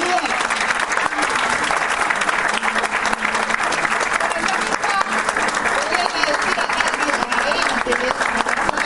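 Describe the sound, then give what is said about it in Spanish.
Sustained applause from an audience, a dense, steady crackle of many hands clapping at even loudness for the whole stretch, with faint voices mixed underneath. “damos un aplauso a”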